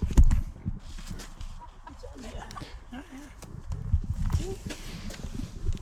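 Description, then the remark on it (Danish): Hens cluck in short, scattered bursts, mixed with scuffling and shuffling movement on the ground, while muffled voices murmur in the background. “Ja, hvorfor er du så bange for, Jamen, jeg ved, for det de for høner der?”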